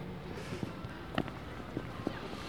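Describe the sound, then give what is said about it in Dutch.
Footsteps walking at a steady pace outdoors along the former course of the Binnenrotte, heading slightly uphill toward the Hoogstraat, four or five soft, evenly spaced steps over a constant hum of street noise and background murmur. “we lopen hier dus nu echt zeg maar, in het tracé van de binnenrotten.”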